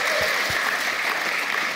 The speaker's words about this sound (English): You don't have to clap for the last person.